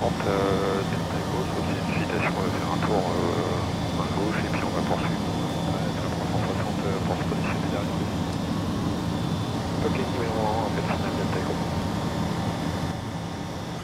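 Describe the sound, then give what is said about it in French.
A steady, loud engine drone fills the cabin of a small training airplane in flight, constant throughout with a faint tonal hum, while people talk over it intermittently. “Ça, ça a l'air hyper maniable parce que c'est un avion école, donc c'est le but, hein, euh, c'est relativement maniable.”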